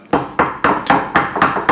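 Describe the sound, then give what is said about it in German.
Seven quick knocks on wood in a steady, even rhythm, each a sharp, fairly loud hollow rap with a short decay. No voices are heard. “Klopf auf Holz.”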